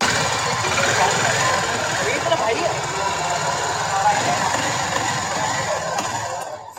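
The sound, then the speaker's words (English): A Harley X440 motorcycle engine is revved, running loud and rough for several seconds, a steady throbbing rumble with rapid, uneven pulses, before cutting off abruptly at the end. “this was the rev sound of the Harley.”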